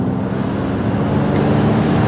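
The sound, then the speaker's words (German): A loud, steady engine drone hums low and continuous for the whole stretch, an artificial motor sound played through the loudspeaker of a Ford Mustang Mach-E GT electric car, with no one speaking over it. “Dafür haben ihm sogar Motorsound verpasst.”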